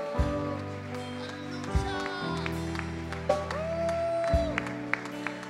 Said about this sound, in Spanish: Señor, te damos un fuerte aplauso, pero muy fuerte reconocimiento.